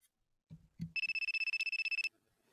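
A phone ringtone trills in a fast, steady electronic pulse for about a second, loud and close, after a couple of soft low thumps.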